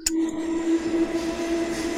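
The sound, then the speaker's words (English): Someone imitates a steam train with their voice, holding a steady, droning whistle-like tone for about two seconds, fairly loud, with a brief sharp click at the start and no words. “… is on a steam train recording”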